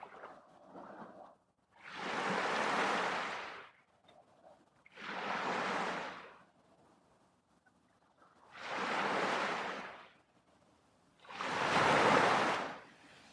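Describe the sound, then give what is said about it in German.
Four broad, rushing surges of ocean surf rise and fall in a slow, regular rhythm, each wave breaking and washing onto a sandy shore, with quieter gaps of low water hiss between them. “Du kannst dich gerne an diesem Ort für einen Moment hinsetzen und den Sand unter dir spüren und die Wellen beobachten.”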